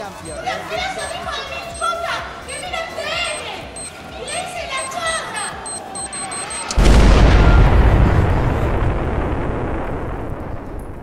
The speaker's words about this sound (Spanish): Realmente el populismo eh, hecho un cacerolazo pidiendo que los políticos se bajen el sueldo.